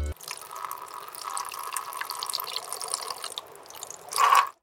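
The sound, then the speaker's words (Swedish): Urine trickles steadily into a glass as someone pees into it for several seconds, a continuous stream with faint dripping, swelling to a brief louder splash just before it stops. “Jätten blev djupt bedrövad när han fick höra vad doktorn hade sagt och bestämde sig för att kissa i ett glas.”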